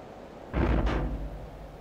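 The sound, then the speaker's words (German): A heavy metal submarine hatch slams shut with a deep, booming clang and a quick second impact, then a low resonant rumble fades away. Nobody speaks. “Klappe zu,”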